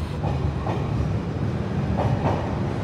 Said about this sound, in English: One central platform services trains from opposing directions